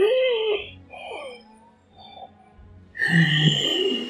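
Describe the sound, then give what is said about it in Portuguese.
A voice imitates the laboured breathing of a very old woman lying on what seems to be a makeshift bed: a few wheezy, whimpering breaths with short pauses, then a louder, strained, rasping groan to finish. “Ela tá deitada numa. Parece ser uma cama improvisada. E ela tá respirando tipo.”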